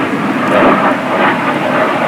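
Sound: airplane flying overhead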